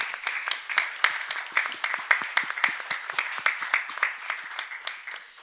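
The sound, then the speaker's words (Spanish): A group of people claps steadily, a dense patter of many overlapping hand claps with sharp individual slaps standing out, holding a fairly even level throughout with no voices. “quiero que te demos un aplauso.”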